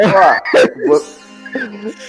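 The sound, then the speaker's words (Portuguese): A person mimics a dog, letting out a few whiny, yelping barks and a drawn-out whimper in quick succession, fairly loud. “fui eu, fui o cachorro que caga, o cachorro que caga”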